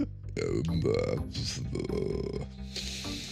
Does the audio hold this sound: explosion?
no